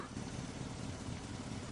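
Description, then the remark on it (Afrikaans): A car engine idles, a steady low rumble holding even for the whole moment, with no other distinct sounds standing out. “en die kar nou?”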